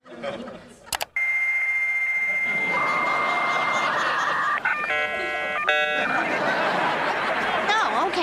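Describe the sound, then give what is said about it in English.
A dial-up modem handshakes as a new computer signs on to the internet: a click, then a steady high tone, a second lower tone, warbling chirps and a wash of harsh static hiss, loud and continuous to the end. “it shows them getting their first computer and signing on to the internet. And there's that sound.”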